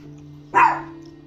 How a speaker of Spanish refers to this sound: Bueno, Cleo, cállate el perro, chico bueno,